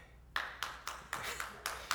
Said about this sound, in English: He is, I'm not done yet. Hang on, save your applause.